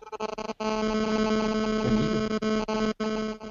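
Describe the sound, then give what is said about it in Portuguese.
A harsh electronic buzz with a steady, harmonic-rich hum from mobile phone interference on the line, pulsing with brief dropouts before resuming, fairly loud and continuous with no voices. “tá dando interferência aí no, no celular.”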